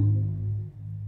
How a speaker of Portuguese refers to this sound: Não, uma moto, né? Isso é uma moto, pelo amor de Deus.